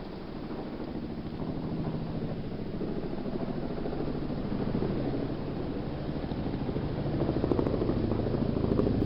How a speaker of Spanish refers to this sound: Eso es claramente un helicóptero. Qué buen oído, tío. Y eso que lo estoy escuchando por Skype, que se escucha súper mal, pero bueno. Pues eh, eh, efectivamente es un helicóptero.